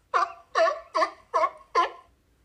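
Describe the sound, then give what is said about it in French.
A true seal (phocid) calls out in five evenly spaced, harsh barking bursts, each short and loud, repeating in a steady rhythm with nothing else around them. “Quel bruit fait le phoque?”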